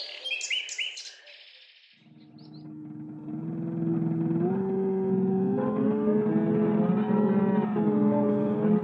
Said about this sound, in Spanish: Lo que estamos escuchando es una composición musical de Luigi Russolo, de principios del siglo pasado. Russolo es conocido por crear el manifiesto futurista titulado El arte de los ruidos.